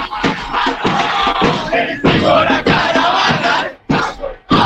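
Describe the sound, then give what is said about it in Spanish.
A large crowd of political supporters mobilized for Cristina chants loudly and rhythmically in unison, voices rising in repeated bursts with brief pauses between phrases. “Sí, la de la Cristina en periodo nacional. Me encantó esa también, ¿eh?”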